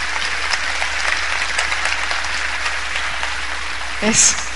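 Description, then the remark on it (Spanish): Steady crowd applause for a couple called up from the audience, a dense wash of many hands clapping at an even level, with a brief louder swell and a few voices near the end. “a ver, vamos a darles un aplauso.”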